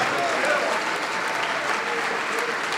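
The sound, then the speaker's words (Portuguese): A church audience applauds to praise Jesus as people come forward to be saved and baptized, a steady, dense wash of clapping that stays loud and even throughout, with faint voices mixed into the noise. “Vamos aplaudir ao Senhor Jesus por cada vida que está se decidindo, e são muitas.”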